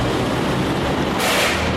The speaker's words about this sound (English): We're, we're, going underneath the uh, CTA green line. Underneath, not on the train. Just past the train.